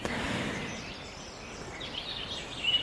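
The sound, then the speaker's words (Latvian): Faint birdsong, a soft, continuous mix of chirps and twitters over a quiet outdoor hush, with no one speaking. “Tā lai, lai paskan mazliet putni fonā.”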